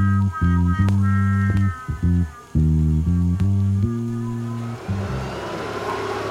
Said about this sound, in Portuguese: quando o táxi parou mesmo em frente ao prédio dela e me dei conta que aquilo estava cheio de carros da polícia parados à porta.